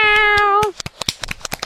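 A single drawn-out, steady-pitched meow lasting under a second, dipping slightly at the end, followed by a quick series of sharp crackling clicks.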